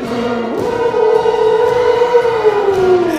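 A theremin sounds a loud, eerie sci-fi tone, sliding up in pitch and then holding a wavering, siren-like note that slowly sinks, with no voices.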